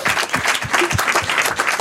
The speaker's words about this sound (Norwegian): Det vil jeg si. En applaus.